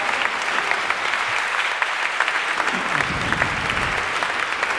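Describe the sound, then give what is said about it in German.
An audience applauds the candidates steadily, a dense wash of many hands clapping at an even, fairly loud level throughout, with no voices rising above it. “ich sage Dankeschön bei allen Kandidaten und ich finde, dass die jetzt alle mal einen Applaus verdient haben, dass sie sich jetzt diese Mühe gemacht haben.”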